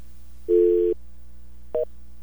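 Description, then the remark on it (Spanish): A telephone busy tone after a dropped call: a steady, mid-pitched electronic beep lasting about half a second, a pause, then a second, much shorter beep. No voices. “Se cayó. La próxima.”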